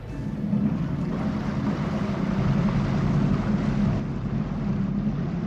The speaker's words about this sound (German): Die Fahrt mit dem Boot dauert knapp zehn Minuten